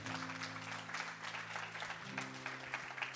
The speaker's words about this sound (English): Somebody give the Lord a hand clap who believes that.